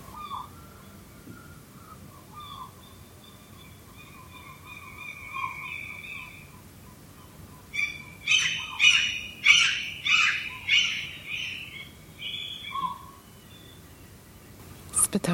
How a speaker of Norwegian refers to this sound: Er måker slik som barn, at de klager mest når foreldrene hører dem. Og om natta snakker de sitt egentlige språk.